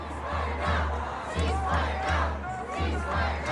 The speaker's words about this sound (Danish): De råber, shame on you, shame on you, altså skam dig, Biden